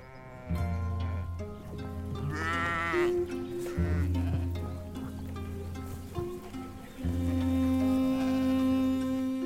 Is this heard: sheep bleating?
yes